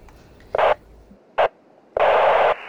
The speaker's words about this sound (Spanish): Vargas, ¿me escuchás? ¿Me tomás? Se pierde la señal.